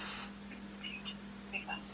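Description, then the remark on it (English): A clock plays a faint, thin electronic chime of a few short high notes in an uneven little melody over a steady low hum. “I have, um, I have clocks that plays music.”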